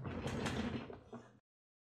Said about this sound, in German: Mein Gott, mein Stuhl macht so viel Lärm.